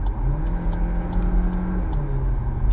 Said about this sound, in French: Sur cette version hybridée, on est à 245 chevaux, qui est largement assez, je peux vous dire que voilà, on va faire une petite accélération